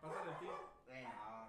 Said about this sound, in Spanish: Hay una disculpa por los perros porque no tenemos producción que los calle, así que. Este, pues, disculpen. Cállalos, producción.